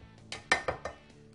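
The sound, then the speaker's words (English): Several sharp clinks of heavy Le Creuset cookware knocking together as a baking dish is handled, about four quick metallic-ceramic taps in a loose rhythm, moderately loud with no talking. “And what I like about these dishes, they're really good for baking when we're using a Le Creuset.”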